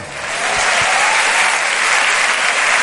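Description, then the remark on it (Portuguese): An audience gives itself a hand, breaking into sustained applause, a dense, steady wash of clapping that swells in the first half-second and holds loud and even throughout, with no voices audible. “Agora se aplaudam.”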